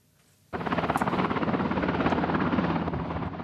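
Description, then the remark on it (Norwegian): A helicopter from the North Sea comes in to land at Stavanger airport Sola, Norway; its rotor thumps in fast, steady pulses, starting abruptly and staying loud throughout, with a broad roaring engine wash beneath the rhythmic beating. “Nok et helikopter fra Nordsjøen inn for landing på Stavanger lufthavn Sola.”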